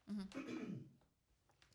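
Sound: cough and throat clearing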